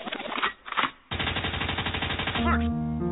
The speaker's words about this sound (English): Liquid means rewind, a gunshot means forward.